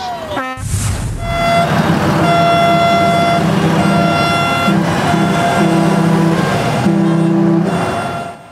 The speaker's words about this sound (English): The group driving first through North Nanaimo, then through the city's downtown, honking horns and flying Canadian flags to show their support for the protest.